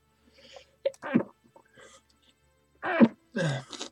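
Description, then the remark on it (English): A stifled, almost-sneeze: a sharp catch of breath, then a couple of breathy, held-back bursts through the nose, with quiet pauses between them and no speech. “Ooh, almost sneezed there.”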